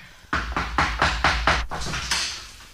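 A loud series of five quick rattling clunks as the lock of a locked door is worked, followed by a softer rush of noise as the door swings open.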